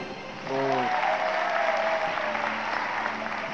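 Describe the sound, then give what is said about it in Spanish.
A Deal or No Deal game show audience breaks into loud, sustained applause after a case is opened, swelling suddenly and continuing as a dense wash of clapping, with brief vocal tones and cheers mixed in near the start. “Ya no sé si es bueno o malo que me aplaudan.”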